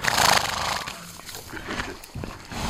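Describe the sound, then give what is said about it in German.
A horse neighs loudly, a harsh, whinnying call that trails off over a couple of seconds, on a small horse farm housing five horses, with farmyard noise around it and no one speaking. “Fünf Pferde hat der Kaufmann hier untergebracht.”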